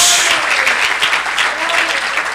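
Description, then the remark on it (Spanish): An audience claps steadily, a loud dense wash of many hands applauding continuously with no break, a faint voice or two mixed in beneath. “A ver, démosle un aplauso a Él esta noche.”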